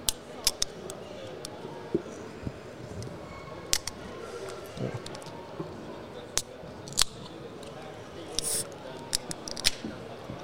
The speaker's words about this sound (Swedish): Då gör vi det. Vi öppnar dagens dricka då.